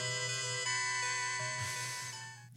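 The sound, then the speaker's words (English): A bright electronic MIDI tune, the title screen music of the game Shining Force, used as a phone ringtone, plays on its own: sustained synth tones stepping through a short melody, fairly loud, fading slightly near the end. “It could be a ringtone.”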